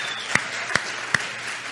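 An audience applauds the church's ministry that goes out on Friday nights to serve people at the bus station in Brasília, bringing food, hot broth and hope. The clapping is a steady, dense wash, with three louder, sharper claps standing out at an even rhythm. No voices are heard.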